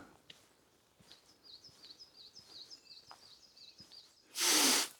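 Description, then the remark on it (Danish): Woodpeckers call somewhere in a forest, a quick, even series of thin, high notes, with a few faint taps around them, then a sudden loud sneeze-like burst. “Der er nogle spætter et eller andet sted.”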